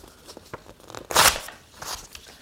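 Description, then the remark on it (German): Paper notes being crumpled and torn: scattered crackles and crinkles build to one loud, bright rip in the middle, followed by softer rustling. No one speaks. “schreibst den Zettel kaputt. Das waren die Notizen.”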